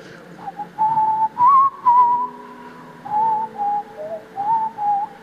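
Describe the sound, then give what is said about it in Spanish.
A person whistles a slow song melody, clear, with sustained pitched notes rising and falling in separate phrases over about five seconds, with no talking. “Y empecé a chiflar.”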